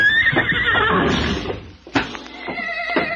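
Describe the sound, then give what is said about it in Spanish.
Horses whinny loudly with high, wavering neighs over a rumbling, shuffling background, then sharp hoof clops strike in an uneven sequence, several mares calling and stamping together as they enter a plaza. “Pero ahí, pero ahí se estuvo escondido, detrás de la cruz del perdón, hasta que todas las yeguas entraron a la plaza.”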